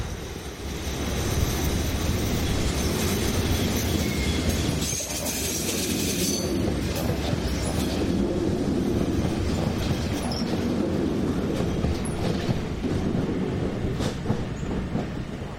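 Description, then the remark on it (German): Heavy train traffic rumbles steadily past at a main railway station, including a freight train pulling in, a dense low roar of wheels and rail noise with faint metallic squeals, filling the whole stretch without any talking. “So, ihr hört jede Menge Zugverkehr.”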